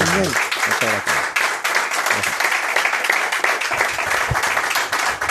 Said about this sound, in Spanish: aquí somos 30 o 40 que te vamos a dar una ovación con todo el ánimo del mundo y el calor que merece el pregonero de la Semana Santa de Sevilla.